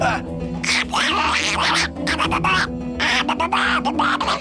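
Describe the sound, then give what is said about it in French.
A loud voice imitates a duck with a string of raspy, nasal quacking bursts in an uneven rhythm, pausing briefly between squawks. “Non, le canard fait coin coin, pas quoi.”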